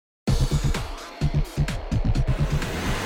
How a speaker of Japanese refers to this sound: 片倉はそう言うとアクセルを踏んで勢いよく車を走らせた